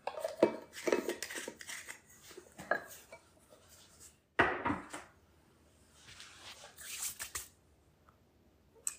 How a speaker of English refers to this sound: we're whisking together here all the dry. Gently, because that cocoa powder wants to get into the air and make you cough. I'm gonna try not to do that.